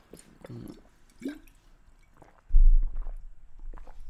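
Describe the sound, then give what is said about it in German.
Someone takes a quiet sip of water, with soft wet mouth sounds and a swallow, then a duller low thump follows as the drink ends. Fairly faint, no talking. “Und da bekomme ich natürlich wieder selber Lust, mehr Wasser zu trinken, weil ich jetzt auch wieder merke, dass ich beim Sprechen so einen trockenen Mund bekomme, muss ich natürlich jetzt erstmal einen Schluck trinken.”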